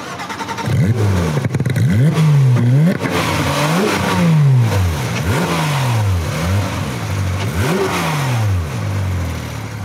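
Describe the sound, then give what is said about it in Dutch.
A Porsche 911 GT3 sports car engine revs hard over and over, pitch sweeping up and dropping back in a rapid series of loud throttle blips, each rise sharp and rasping, with no voices. “En je bent die stijl hier naartoe gekomen hè, met de Porsche 911 GT3.”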